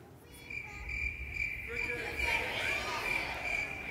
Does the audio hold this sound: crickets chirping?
yes